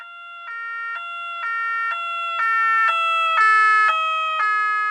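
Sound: emergency vehicle siren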